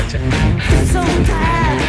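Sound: raw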